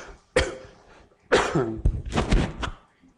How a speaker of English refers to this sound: Sorry, I got a cough.